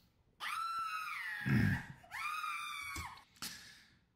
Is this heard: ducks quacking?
no